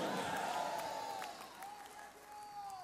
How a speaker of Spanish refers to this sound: Está bien que aplauda, pero diga amén.